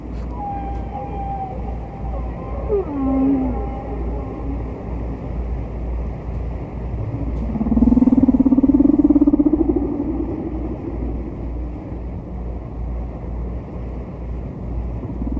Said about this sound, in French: on va écouter un autre chant hein, du disque de Penn et McVeigh, La plage 4 la baleine distante de la face A